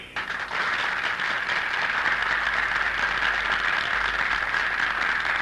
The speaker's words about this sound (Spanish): Cuando aún duran en la sala los campanillazos de la presidencia para ahogar los aplausos a Alcalá Zamora, Fernando de los Ríos se levanta entre una gran expectación.